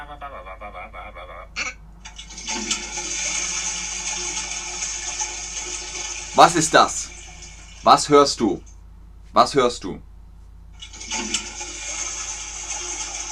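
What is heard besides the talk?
toilet flushing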